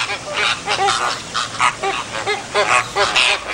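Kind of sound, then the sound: bird, waterbirds calling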